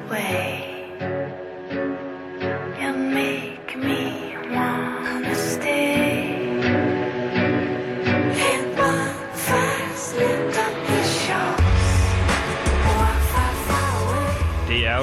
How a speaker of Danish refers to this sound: intromelodien til Strisser på Anholdt.